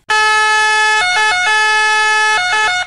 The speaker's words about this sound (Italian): Significa che quando questa ambulanza si avvicina a noi, il pitch è aumentato dell'8%. Volete sentire la differenza? Questa è un'ambulanza normale. E questa è l'ambulanza col pitch aumentato dell'8%.